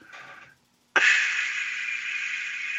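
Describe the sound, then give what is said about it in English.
A person imitates CPAP machine airflow with their mouth: a short breathy hiss, a brief pause, then a long, steady rushing hiss that holds evenly to the end. “your upcoming vaporwave album will have a lot of CPAP”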